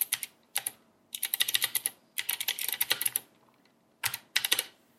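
Bursts of crisp, clicky typing on a well-built mechanical keyboard with clicky switches, fairly loud, with rapid keystrokes in uneven clusters separated by brief pauses. No voices are heard.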